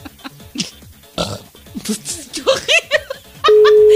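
A loud, rough, real burp (not a sound effect) during a live recording, surrounded by bursts of laughter and chatter from several people, before a steady electronic beep cuts in at the end.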